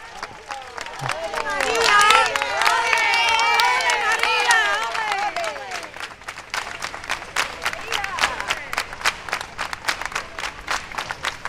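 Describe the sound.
A large outdoor crowd in the Plaza del Altozano in Triana, Seville, cheers and calls out loudly as a funeral carriage procession arrives, then settles into steady, rhythmic clapping in unison, sharp even beats carrying over a murmur of voices.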